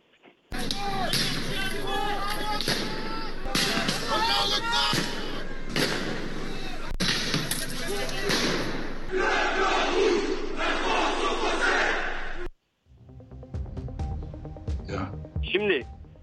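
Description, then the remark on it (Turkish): A large protest crowd chants and shouts together in loud, dense waves for about twelve seconds, a group chanting "Allahu Akbar", then the sound cuts to a thinner stretch of crowd noise with scattered voices, with some saying "France is for the French". “ilk grup e, Allahu Ekber diyenler e, şeyler protestocular çünkü büyük hmm.”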